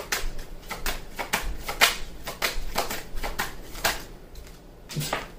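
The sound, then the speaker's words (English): Tarot cards being shuffled during a reading for Taurus: a steady run of quick, papery riffles and soft slaps in uneven bursts, moderately loud, with no one speaking. “And that just, okay, I got three cards that came out. One flew off into space.”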